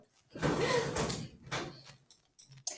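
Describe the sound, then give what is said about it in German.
A sweets drawer slides open with a drawn-out rumbling scrape lasting over a second, followed by a few short clicks and knocks. “Nein, du gehst nicht an meine Süßigkeiten-Schublade.”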